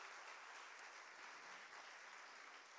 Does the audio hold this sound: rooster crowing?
no